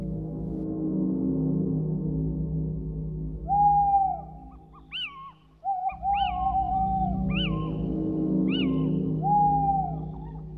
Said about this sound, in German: Kiwit, Kiwit, klagt der Steinkauz. Die Menschen aber verstanden, komm mit, komm mit ins Reich der Finsternis.